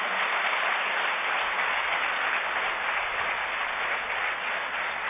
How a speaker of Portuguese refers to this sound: Vamos aplaudir a ele. É assim que ele faz.